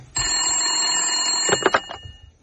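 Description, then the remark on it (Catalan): A telephone rings loudly with a continuous metallic bell trill lasting nearly two seconds, ending in a few clattering bursts as the ringing cuts off. “El telèfon.”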